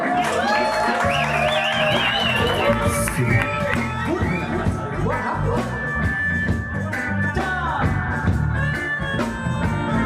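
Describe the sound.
An audience applauds and cheers for about ten seconds, the steady clapping mixed with a noisy babble of voices and occasional shouts, holding a fairly constant loudness throughout.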